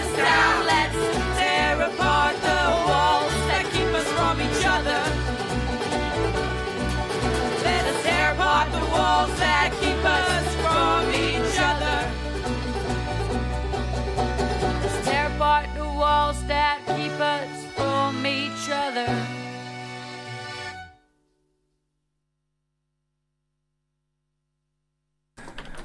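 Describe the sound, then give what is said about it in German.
A loud, dense punk song with driving guitars and drums plays for about twenty seconds, then cuts off abruptly into silence instead of fading out. “Ihr habt gerade gehört äh, … von …”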